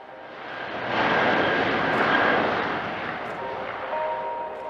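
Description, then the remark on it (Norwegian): A steady, droning engine of a surveillance aircraft with equipment for searching underwater, flying in a search-and-rescue search, swells in over the first second and then holds at a loud, constant roar with a faint whine, with no voices. “Etter tre dager med leteaksjon ble et spesielt overvåkningsfly involvert i søket.”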